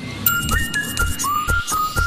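A clear whistled tune carries a slow melody of sustained, gliding notes over a steady rock beat with regular drum hits, played like a song recording at moderate loudness.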